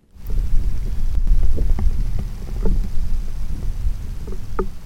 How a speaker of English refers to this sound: so let's listen to a hydrothermal vent